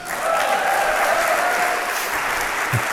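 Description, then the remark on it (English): A large audience at the Getty Sing Conference in Nashville applauds steadily, a dense wash of clapping that holds at a constant loud level for a few seconds, with no voices standing out. “Wonderful turnout, enthusiastic engagement, as you can hear at the Getty Sing Conference this summer in Nashville.”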